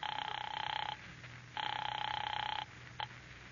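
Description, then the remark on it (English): A telephone rings in two long, steady electronic bursts separated by a pause, then a brief third ring starts and cuts off, heard clearly over a low background hum. “Operator, operator, how about my number? I'm ringing it now.”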